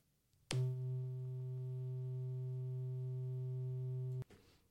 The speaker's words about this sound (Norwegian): Så dette er en C. Og en C på 128 hertz, den vil høres eh, sånn som dette her ut.